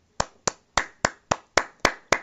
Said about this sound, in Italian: Allora, Applauso, guarda, ti faccio gli applausi dal vivo, te li ho fatti io